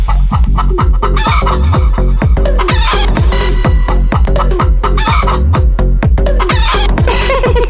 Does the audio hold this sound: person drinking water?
no